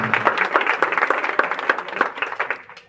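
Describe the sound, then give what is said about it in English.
A crowd gives another round of applause to guests from a ministry who had just shared with them that evening, a dense patter of many hands clapping at once, steady and moderately loud, tapering off slightly toward the end. “A round of applause again to them.”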